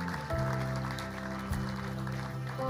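A church audience applauds steadily, a dense wash of clapping that carries on throughout, over sustained low keyboard chords that shift once or twice beneath it, applauding people who have just decided to join the church.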